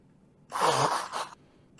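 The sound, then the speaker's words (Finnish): Someone blows their nose in one forceful honk of about a second, with a brief second push at the end. No one speaks. “Pieni hetki. Niistä nenäni.”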